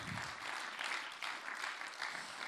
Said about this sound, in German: Und ähm, geben wir doch mal einen grossen Applaus